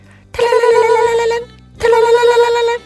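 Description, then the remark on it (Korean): A phone rings twice, each burst a bright, harmonically rich electronic tone lasting about a second with a short pause between, loud and alone with no talking. “그런데 갑자기 울리는 태주의 전화기.”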